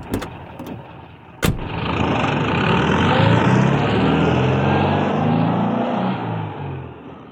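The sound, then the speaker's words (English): A few clicks, then a sharp thud as the engine of the car Toad has just climbed into catches and roars to life, revving with rising and falling pitch before settling into a steady, loud idle. “Toad got into the car happily.”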